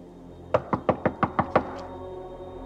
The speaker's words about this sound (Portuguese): Aí chegou o pai do Vitor bateu na porta. Até então eu não sabia quem era.